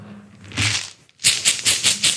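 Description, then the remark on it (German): A mobile phone vibrates against a hard surface: a longer rattling buzz, a brief pause, then a quick run of about four or five loud, evenly spaced buzzing pulses. “irgendwo brummt hier ein Handy.”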